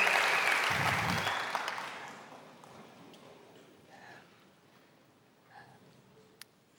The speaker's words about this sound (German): Also darum, darum lasst uns aufstehen und Manuel Schmidt begrüßen mit einem tobenden Applaus.